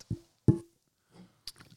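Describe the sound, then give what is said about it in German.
Soft sipping and gulping from a drink after a toast: two quick wet plops, then faint swallowing noises and a small click, with no talking. “Darum hast du so gezögert oder gesippt.”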